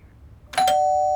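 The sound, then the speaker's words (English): A doorbell rings: a bright two-part chime with a sharp onset, then a steady ringing tone that sustains loudly to the end, with no voices present. “Oops, someone's at the door.”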